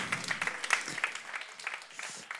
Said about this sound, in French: Bravo. On peut l'applaudir.